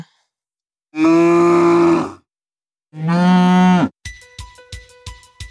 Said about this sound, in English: Okay, that one is easy. That is a cow. Good job. That is excellent. You are you are correct. That is clearly a cow's moo.